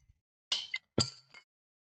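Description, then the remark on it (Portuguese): Two brief, sharp crackling clicks as a plastic water bottle cap is twisted open, with a short pause between them and no voices. “E eu conseguir abrir a garrafa.”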